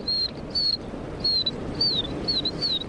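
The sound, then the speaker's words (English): A birder whistles imitations of tree sparrow calls to attract the birds: five or six short, high, thin chirps, some sliding downward, repeated in a quick irregular series over a steady low rumbling background. Six tree sparrows came in. “Hear those tree sparrows? Well, actually, those aren't real tree sparrows.”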